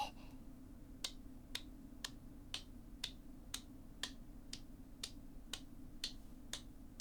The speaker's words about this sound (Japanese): 首も肩もほぐれてきたところで空いた両手でチョップするように叩いていきます左肩から失礼して